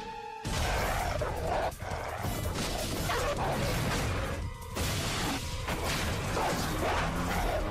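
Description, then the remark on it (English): A dog barks and yips amid a loud, continuous clatter of crashing and banging, chaotic, with no clear pauses for several seconds. “What was that? my dog.”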